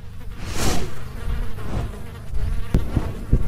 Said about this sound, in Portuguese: Eu dei dois passos para trás e foi quando eu ouvi um bater de asas ensurdecedor.